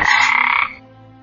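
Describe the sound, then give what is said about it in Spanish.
A toad gives one loud, raspy croak lasting over half a second, then falls quiet except for a faint low hum. Clear, with no voices. “Ciertas tribus de América, cuando quieren lluvia para sus cultivos, reunidos sus miembros, asumen la figura del sapo, lo imitan, y luego, en coro, remedan el croak de los mismos.”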